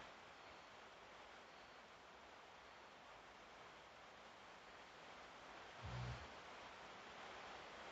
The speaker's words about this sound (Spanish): La parte lo-fi del episodio. Escuchemos la lluvia.